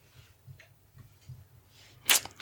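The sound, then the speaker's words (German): A dog settles onto its cushion: a low, soft shuffling builds up, then two brief rustling thumps near the end as it flops down. Nobody speaks. “Der Hund geht auf sein Kissen. Ich denke, ihr hört es.”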